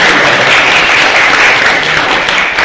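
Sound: audience applause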